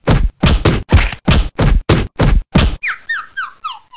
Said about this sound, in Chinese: 小兔他们一看，气坏了，挥起棒子，噼里啪啦就打了下去。